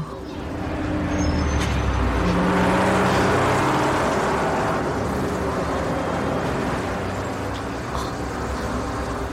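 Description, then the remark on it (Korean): A bus bearing a terminal sign pulls into a stop in thick fog, its heavy engine rumbling in a steady low drone with broad hiss that swells early and then holds for several seconds, with no voices. “터미널 표지판이 있는 버스가 정류장에 들어온다.”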